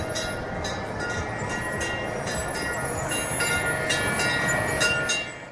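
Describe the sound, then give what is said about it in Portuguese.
A vintage first-generation Tangtang electric bus rolls past on Tianmen Avenue in Beijing, a steady mechanical rumble and faint whine with scattered metallic clicks and rattles, loud throughout and easing off at the very end. “Tangtang é um apelido que os habitantes de Beijing deram ao ônibus elétrico.”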